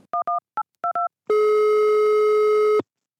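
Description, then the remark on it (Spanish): A quick series of touch-tone keypad beeps dials a directory enquiry service number, then a steady, loud telephone line tone hums for about a second and a half before cutting off. No voices are heard. “Eh, hay total libertad tarifaria para los prestadores de, este servicio de consulta, de modo que la única manera que tiene el usuario de conocer cuál es el precio que le cobran es en el momento en que llama a un número concreto y escucha la locución.”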